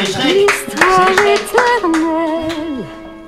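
Scattered hand claps ring out for a correct answer on a quiz, over a loud, sustained melodic tone that slides up and down in pitch, the clapping sparse and uneven rather than a full burst of applause.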